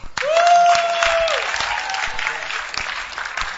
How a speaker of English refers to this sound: And how many couldn't go for the camp? You couldn't go. Okay. Also, also, let's clap for them.